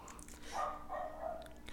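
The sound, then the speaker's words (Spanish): A dog that is shut in and wants to be let out barks in the background, a few short, whiny yelps in quick succession, fairly faint and muffled, with no voices over them. “Y ahora sí, si no se calla es porque quiere que lo saque y pues se va a quedar encerrado más tiempo porque yo no tengo tiempo para estar sacando perros.”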